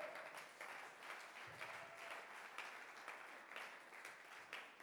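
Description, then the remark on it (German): Steady audience applause fills the whole stretch, a dense crackle of many hands clapping at once with small rises and dips in intensity, fairly loud and without any talking over it. “Ist ein Applaus wert, ne?”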